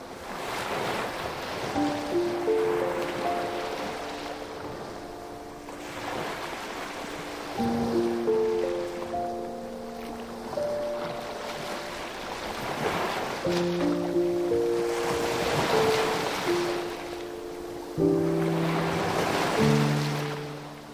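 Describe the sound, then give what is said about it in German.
Ocean waves roll in and wash onto a fine-grained white sand beach in steady surges every few seconds, a continuous hiss of surf, with soft sustained musical tones drifting underneath. “Das Meer, das sich langsam und beständig zum Ufer bewegt und wieder zurückläuft.”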